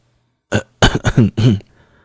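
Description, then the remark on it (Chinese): A man coughs in a short fit: one sharp cough, a quick run of three rough, voiced coughs, then a final longer one, fairly loud with no talking. “苏大为忍不住咳嗽起来”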